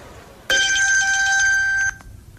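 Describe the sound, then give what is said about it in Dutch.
A single telephone ring on an outgoing call to the speaker's father, placed from the arrivals hall after landing in Seoul: a loud, steady electronic tone with bright layered overtones, starting abruptly and holding for about a second and a half before cutting off. No one speaks. “Ik bel mijn vader.”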